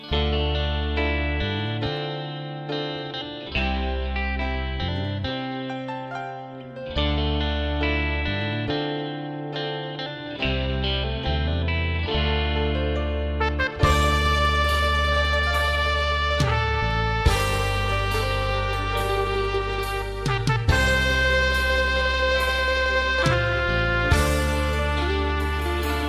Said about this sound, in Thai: ในช่วงนี้เราไปฟังเพลงเพราะๆกันก่อนนะครับแล้วกลับมาพบกันในช่วงต่อไปครับ